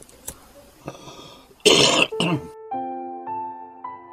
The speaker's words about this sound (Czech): jenom takový ten těžký kuřácký kašel, jo, se někde jako projevil